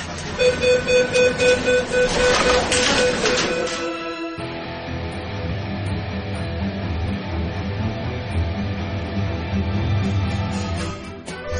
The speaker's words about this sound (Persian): این صدا مربوط به فیلمی است که در شبکه مجازی منتشر شده در این فیلم کشتی با ورود به مثلث برمودا تعادل خود را از داده و در درون آب مکیده می شود.